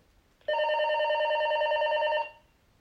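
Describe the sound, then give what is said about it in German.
A single steady electronic ring tone from a cordless telephone handset, set off by pressing a button on the phone, sounds loud for nearly two seconds, then cuts off, leaving near silence. No one speaks. “Die ist zum Klingeln da.”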